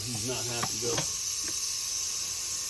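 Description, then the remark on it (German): A venomous rattlesnake in a house kitchen raises its head and threateningly rattles the rattles at the end of its tail as a snake catcher approaches. The rattle buzzes steadily as a dry, continuous, fairly loud hiss throughout, with a brief voice at the start before the rattling carries on alone. “richtet sie ihren Kopf auf und beginnt bedrohlich mit ihren Rasseln am Schwanzende zu klappern.”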